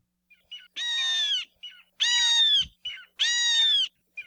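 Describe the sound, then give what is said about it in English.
An io, the Hawaiian hawk and the only native hawk in Hawaii, calls three times, each a loud, harsh, drawn-out scream, evenly spaced, with shorter, softer notes in between. “Io or Hawaiian hawk, is the only native hawk found in Hawaii.”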